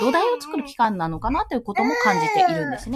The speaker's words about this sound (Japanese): ごめんなさい、ちょっと息子の声が入ってるんですが